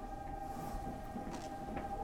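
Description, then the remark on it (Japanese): Steady low rumble inside a moving, fairly crowded train cabin on a two-hour one-way ride, with a constant hum and faint rattling throughout, no voices, fairly quiet and continuous. “電車の中あったかい”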